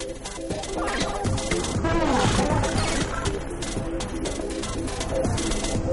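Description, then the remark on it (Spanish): A loud, steady techno track built from a man's recorded flatulence, made at home, autotuned, pitched and sequenced into a rhythmic, repeating pattern over a driving beat, with no talking. “Cada uno de los sonidos es un peo.”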